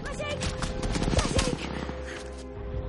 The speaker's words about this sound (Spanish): Los soldados disparan a Nitiri oculta tras un árbol.